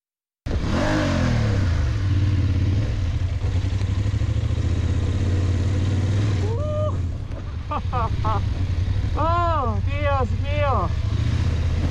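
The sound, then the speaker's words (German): A motorcycle engine revs steadily and loudly, straining as it climbs an embankment in Colombia, while later a voice lets out a few short exclamations over the running motor. “Bislang habe ich allerdings kaum Offroad-Erfahrung auf dem Motorrad.”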